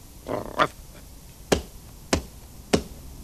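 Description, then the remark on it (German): Four sharp, hard stamps of a foot on the ground, evenly spaced, with a softer scuffing sound before the first one. There is no talking. “Stampf mal kräftig auf die Erde.”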